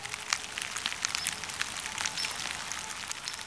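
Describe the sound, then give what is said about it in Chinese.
Steady, soft drizzle falling on the day of the Qingming Festival, with a constant hiss and scattered light droplet ticks pattering throughout, fairly quiet and even in level, with no voices. “到了清明节这一天，天气真的会比较不稳定，所以你看吧，下雨了。”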